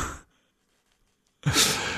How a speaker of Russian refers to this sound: Вот, а, Марина Лях, осуждающе пишет, что ведущему так скучно вести эфир, что сам зевает прямо в эфире. У меня гипоксия, или как это называется, я периодически зеваю, это уже наша легенда.